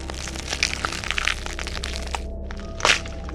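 Bones crushing with dense, irregular cracks and crunches, a steady grinding texture of snaps, with a sharper, louder crunch near the end and a low rumble underneath.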